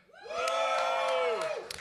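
audience shouting and cheering

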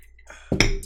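glasses clinking

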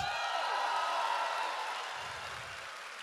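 audience cheering and applauding

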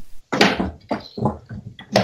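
chair being moved

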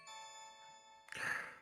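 doorbell ringing

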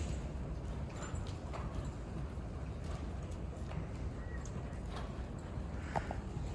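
horse hooves clip-clopping

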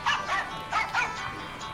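phone ringtone

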